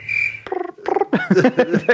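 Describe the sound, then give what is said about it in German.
A voice imitates a cricket chirp: first a steady, high whistling tone, then a rapid run of short, buzzy, croak-like vocal chirps, fairly loud and with no other sounds. “Kannst du das Geräusch an der Grille nachmachen?”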